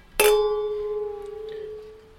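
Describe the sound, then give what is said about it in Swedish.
Glasses of Dolcetto red wine clink together once in a bright toast, the clear glassy ring sustaining and slowly fading for about two seconds with no talking. “Men du, ska vi börja med en skål? Vi skålar.”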